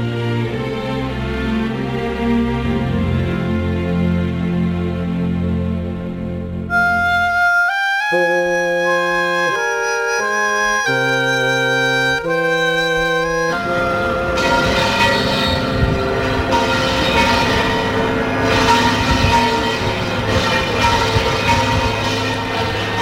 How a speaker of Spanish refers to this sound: Sonidos de Sevilla en el primer lunes de Cuaresma con esas campanas de la catedral.